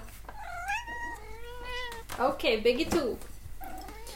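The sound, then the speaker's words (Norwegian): Two cats meow in turn: drawn-out, rising mews followed by a louder, more insistent yowl and a final shorter cry, with a person speaking briefly between them. “den som er sulten, si mjau.”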